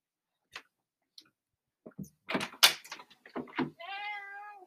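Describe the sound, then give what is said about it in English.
A male cat bangs and scratches at the door of a room, wanting to come in, in a quick flurry of irregular knocks and thumps, then lets out a short, plaintive meow at the end. “The kitty really wants to come in my room. He is banging.”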